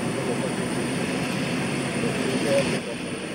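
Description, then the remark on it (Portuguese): A steady, broad roar of an airplane landing in the early morning hours fills the whole stretch at a fairly loud, even level, with faint indistinct voices mixed underneath. “O avião aterra às primeiras horas da manhã e o corretor é levado diretamente para os calabouços da PJ.”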